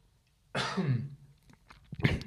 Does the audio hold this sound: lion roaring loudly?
no